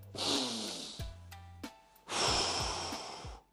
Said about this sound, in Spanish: Esa es la primera respiración.